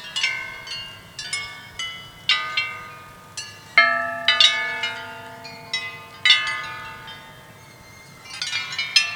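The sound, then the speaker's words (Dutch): Hanging bells start to swing and ring out in an uneven, overlapping sequence of bright metallic strikes, each leaving a long shimmering decay, with a deeper bell joining partway through. No one speaks. “Die gaan zo beginnen met klinken.”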